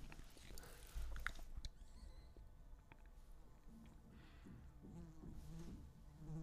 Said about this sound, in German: wir haben hier so eine kleine Fliege, die nervt so krass.